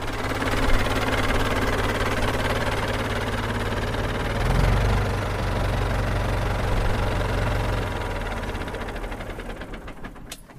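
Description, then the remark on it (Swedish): A 650 tractor, one of the last built in 1984, idles with a steady, low, throbbing rumble, briefly swelling around the middle before settling back and fading slightly at the end. No one speaks. “Vilken ja. fin traktor du har!”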